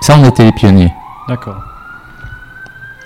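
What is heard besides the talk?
siren passing outside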